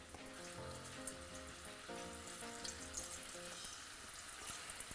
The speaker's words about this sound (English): Here is another key to making really good potato chips. The second they're done frying, salt them immediately because the salt will not stick to the potato chips once they're cool.